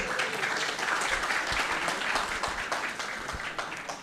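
Sustained audience applause, a dense wash of many hands clapping at steady volume for several seconds before easing slightly toward the end.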